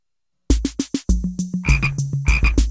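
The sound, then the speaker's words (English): A frog croaks loudly, starting with four quick separate croaks and then breaking into a fast, steady string of rattling croaks, with no talking. “F is for frog.”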